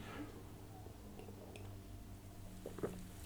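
sipping and swallowing beer

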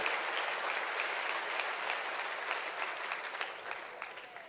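audience clapping hands

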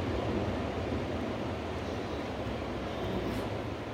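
pacific Ocean waves

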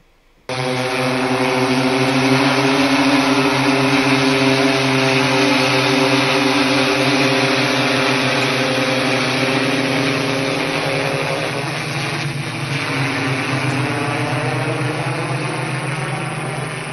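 drone buzzing

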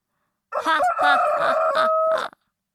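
rooster crowing loudly

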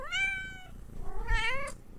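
house cat meowing

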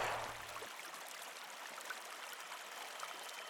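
flowing stream water

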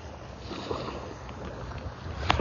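ocean waves

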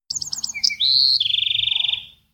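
birds chirping and tweeting

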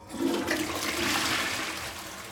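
toilet flushing

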